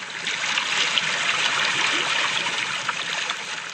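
Gentle sea water laps and washes steadily against the shore along the coast, at a spot where the sea drowns out the noise of the urbanized landscape, a continuous hiss of small waves and trickling water with no voices.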